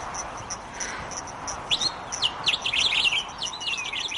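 Small birds chirp and twitter in quick, high bursts, growing busier toward the middle, over a steady low rush of wind and a train that is far off; no one speaks.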